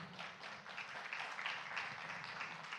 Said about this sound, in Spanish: Entonces, denle un fuerte aplauso al Señor, hermano.